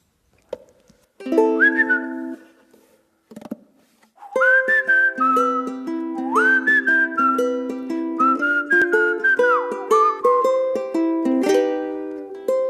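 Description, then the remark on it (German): A short musical theme: a bright whistled melody glides over steady sustained chords, beginning with a few tentative notes before the full tune plays loudly and clearly, with no voices. “Aber für alle, die diese vorletzte Folge jetzt nicht gehört haben, hören wir uns den einfach jetzt nochmal an.”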